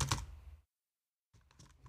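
Keys clatter on a wireless computer keyboard in a quick, fairly quiet burst, then stop for a short silent pause before a few more scattered taps resume. No one speaks.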